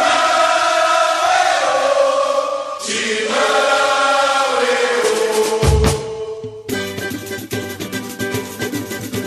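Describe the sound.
A samba-enredo plays loud and close throughout, with a chorus of voices singing over dense, driving percussion. The beat turns sharper and more clipped in the last few seconds.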